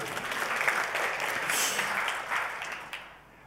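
A church audience at an Ascension Day service applauds steadily for about three seconds, a dense wash of many hands clapping at an even level before it thins and fades out at the end.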